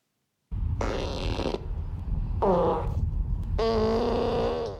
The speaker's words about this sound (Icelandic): Þetta eru beljur að prumpa og það er sko ekkit grín, allavega ekki í augum Bill Gates.